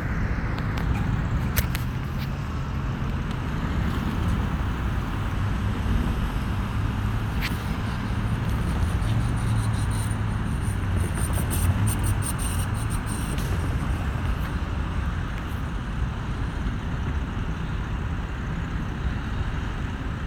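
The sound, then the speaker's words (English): Steady low rumble of old-style cars and motorcycles passing by the train station in Petaluma, with a few sharp clicks and ticks scattered on top and no one talking. “Like Petaluma's always got old style cars and motorcycles, so that's what you're hearing in the background.”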